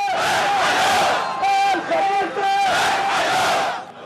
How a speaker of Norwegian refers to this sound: Khalifa-familien, trekk dere, roper sinte demonstranter. De retter sin vrede mot kongefamilien. Gravferden i den sjiadominerte landsbyen Sharakan på tirsdag utviklet seg til kraftige demonstrasjoner mot regimet.